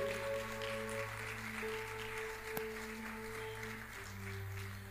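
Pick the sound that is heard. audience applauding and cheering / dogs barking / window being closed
audience applauding and cheering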